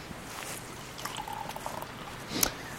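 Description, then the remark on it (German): Wine is poured from an already opened bottle into a glass, a soft gurgling trickle for a couple of seconds with a faint ringing tone, ending with a brief clink. “Ähm, wir, wir gießen mal ein.”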